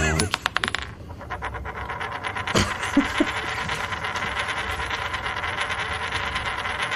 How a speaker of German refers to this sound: Genau, wir werfen nochmal eine Münze, weil ich also zweifle genau.